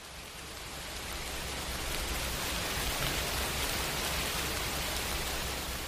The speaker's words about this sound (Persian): باران دیشب شدت گرفته بود.